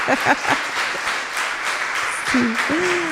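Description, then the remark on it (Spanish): An audience applauds steadily for about three seconds in honor of the women attending, a dense wash of many hands clapping, with a few voices rising over it and a sliding vocal whoop near the end. “Un aplauso para estas mujeres valientes.”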